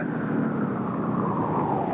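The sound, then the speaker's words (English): A car's engine and road noise rumble steadily on a mountain road, the pitch easing down slightly as the vehicle slows to pull over. No voices are heard. “This is the sixth time we've been up and down this mountain road. Okay. Pull over.”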